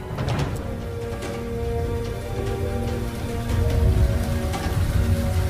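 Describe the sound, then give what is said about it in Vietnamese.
Steady rain patters, with a deep rolling rumble of thunder swelling in the low end toward the end, over a faint sustained tonal drone. No one speaks. “Bọn chúng mặc kệ cả trời mưa, sấm chớp nhì nhằng Vẫn lao ra ngoài đường nhiệt tình để tìm kiếm”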